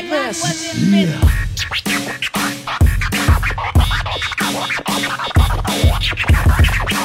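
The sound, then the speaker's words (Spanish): Turntable scratching from a DJ, quick back-and-forth pitch sweeps, then chopped scratches cutting over a punchy, steady hip-hop beat with heavy bass hits. “De los platos, el virtuoso, el señor DJ”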